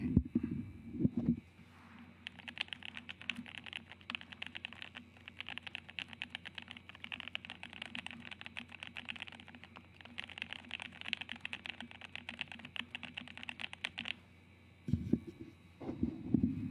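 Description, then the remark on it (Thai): Rapid, steady typing on a mechanical computer keyboard with south-facing lighting, keys bottoming out with no sound of metal hitting plastic, a dense stream of crisp key clicks lasting about twelve seconds over a low constant hum, with a few soft thumps at the start and end. “เพราะว่าเราอย่างเวลาเราเล่นคีย์บอร์ด อ่ะ เราก็ต้องการเสียงที่มันแบบอ่ะผมยกตัวอย่าง อย่างนี้แล้วกันอันนี้ให้ฟังคีย์บอร์ดผม เดี๋ยวปรับใหม่”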